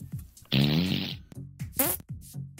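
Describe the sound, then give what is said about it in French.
A series of cartoonish fart sound effects: one long, loud, rumbling blast followed by several shorter toots, their pitch shifting between deeper and higher, with no talking. “Donc ça, c'est un son de P aléatoire sur la, le pitch.”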